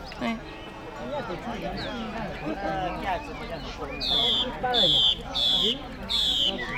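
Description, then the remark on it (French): Small caged songbirds, in dozens of cages hung from tree branches where local people come to sell birds, sing a series of four bright, repeated whistled phrases in the second half, fairly loud, over a steady background of people talking. “À quelques dizaines de mètres, abrités par quelques arbres, des dizaines de cages sont accrochées aux branches. Il y a des petits oiseaux, ils font Ici, les habitants viennent vendre leurs oiseaux,”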